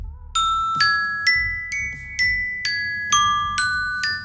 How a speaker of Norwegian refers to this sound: Nei, jeg, eh, jeg, vil bare bruke anledningen til å anbefale den aller beste eh, våkne opp-alarmen. Få høre.